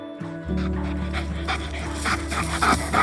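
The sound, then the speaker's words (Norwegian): A dog pants in quick, steady breaths, each huff a soft breathy burst, over a low, sustained musical drone. “Oppgaven hennes var å jobbe med hundene i spesialstyrken, og hun elska det.”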